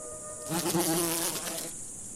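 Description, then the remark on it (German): A mosquito buzzes with a thin, wavering whine that swells up for about a second and then fades away, with no voices around it. “Eine Impfung soll eine schwere Krankheit verhindern, wenn die Mücke sticht.”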